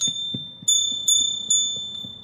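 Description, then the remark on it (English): A small hand bell rings in quick repeated strokes, about four bright, ringing dings over two seconds, each sustaining a clear high tone with faint rattling underneath, moderately loud. “I think I got a bell somewhere here. Let me see if I can do it.”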